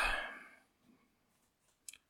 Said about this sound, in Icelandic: Kondum með hann að penna. Þú ætti að fara að klikka pennan, sko.